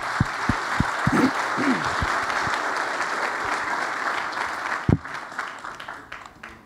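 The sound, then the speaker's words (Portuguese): A church audience applauds to the Lord together in a dense, steady wash of clapping, with a few sharper claps at the start, before the applause thins out and fades toward the end. “Pode aplaudir ao Senhor.”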